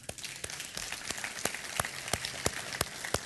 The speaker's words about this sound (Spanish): Oh, un aplauso al Señor.